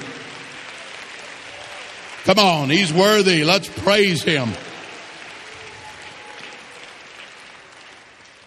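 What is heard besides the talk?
audience clapping hands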